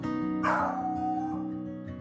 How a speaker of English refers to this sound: He would do anything for a cupcake. Sit, roll over, even attempt to sing, which sounded more like a jolly howl.